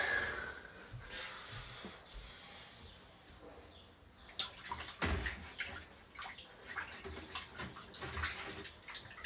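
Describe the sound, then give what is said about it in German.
Wet swishing and sloshing of warm water with rubbing, scraping strokes as a person, hands in the water, wipes a plate with a cloth, fairly quiet, with irregular bursts of splashing. “so die Hände in warmem Wasser und dann hier so überwischen über, das, über den Teller mit dem Lappen.”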